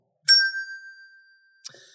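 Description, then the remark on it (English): A bell is struck once, giving a bright ding that rings out and slowly decays, followed by a second, softer strike near the end. “Uh, by the way, uh, uh Eureka Bell, uh, this is now the Eureka Bell.”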